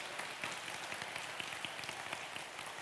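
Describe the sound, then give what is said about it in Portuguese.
A church audience applauds the cell-group hosts who opened their homes, many hands clapping at once in a dense, continuous patter with scattered sharper claps standing out, sustained at an even level throughout. “Vamos aplaudir esses irmãos que abriram as suas casas.”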